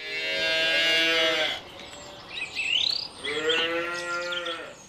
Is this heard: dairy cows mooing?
yes